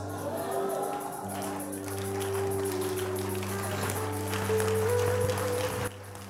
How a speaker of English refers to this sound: God bless those who are clapping